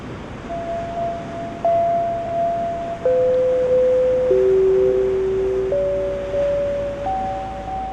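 Steady ocean surf washes underneath a slow synthesizer line of sustained tones that step between a few pitches, each note held for a second or two. No voices.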